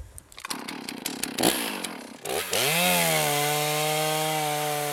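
A chainsaw revs in short bursts while cutting into a fir tree, then settles into a loud, steady high-pitched whine as the fir is cut and limbed, with no voices.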